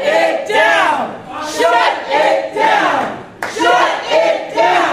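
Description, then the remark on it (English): A crowd of protesters chants "Shut it down" in loud, rhythmic unison at an Executive Council meeting at the New Hampshire Institute of Politics in Manchester. The chant repeats over and over with strong shouted voices and a steady cadence, each phrase rising and falling in a regular pattern. “By the way, one of the people shouting "Shut it down," kind of leading that uh, chant is”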